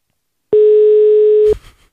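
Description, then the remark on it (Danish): A single steady electronic tone, a mobile phone call ringing tone as a call is placed to a cyclist, sounds clearly for about a second and then cuts off with a soft click and brief rustle. No one speaks. “Ring ham op på din mobiltelefon.”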